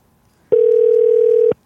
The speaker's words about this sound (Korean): 자 전화 걸어볼게요. 자 갑니까?